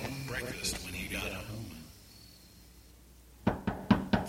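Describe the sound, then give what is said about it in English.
After muffled voices and a short hush, four heavy thuds pound on a building's doors in an uneven rhythm, booming and distant, each knock landing with a dull, resonant hit, at night before dawn. “distant pounding on the doors of the Athenium aroused to tremble from a comfortable slumber.”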